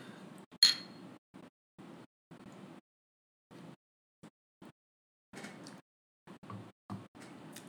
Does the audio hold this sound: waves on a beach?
no